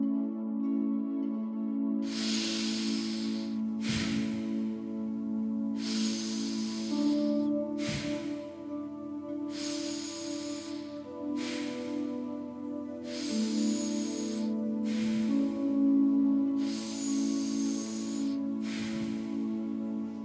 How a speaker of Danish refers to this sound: Det må gerne være en aktiv vejrtrækning, men hvis det bliver ubehageligt, hvis du bliver svimmel eller spænder meget op, så tag den lidt mere med ro og træk bare vejret almindeligt. Vi går i gang med 10 runder.